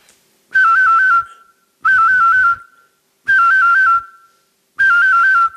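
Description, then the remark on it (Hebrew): A professional whistler whistles an imitation of a cell phone ringtone: four loud, evenly spaced bursts, each a quick warbling trill alternating between two high pitches, separated by brief pauses. “אוקיי, אז קודם כל, אני יכול לעשות כל מיני אפקטים מדליקים. נניח אה, לעשות אה, טלפון סלולרי.”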